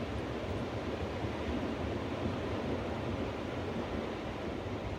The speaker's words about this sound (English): Sitting amongst ancient volcanic rock and taking in the infinite sounds of the Pacific Ocean.